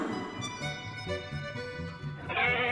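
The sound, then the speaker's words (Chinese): Goats bleating: several wavering, nasal bleats overlap in a steady, fairly loud chorus, with a brighter, higher cry rising near the end. No one speaks. “山羊妈妈有七只小羊羔。”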